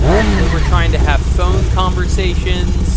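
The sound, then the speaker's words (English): Motorcycles rumble and rev steadily during bike week in Ocean City on the Maryland shore, a loud, continuous low engine roar that persists beneath a man speaking throughout. “sorry for the noise. Uh, it is it is bike week in Ocean City, and this is basically what is basically what every day is for us.”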